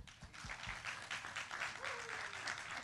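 Sustained applause from an audience, a dense wash of many hands clapping at steady volume for a few seconds, with a faint voice murmuring underneath.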